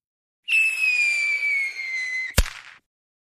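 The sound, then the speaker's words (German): A whistling firework rocket shrieks with a slowly falling tone for about two seconds, then ends in a single sharp, loud bang with a brief crackling tail. No voices. “Aber jetzt an Silvester ja, ich denke, sollte jeder selber überlegen, ob es wirklich nötig ist, Raketen und Böller für hunderte Euro zu kaufen oder ob nicht auch nur ein paar wenige Feuerwerkskörper reichen würden.”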